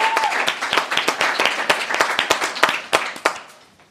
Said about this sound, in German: Die ähm, größte Demo übrigens, wollen wir auch noch mal kurz mit kleinem Applaus. Die größte Black Lives Matter Demo in Nordrhein-Westfalen, glaubst du das?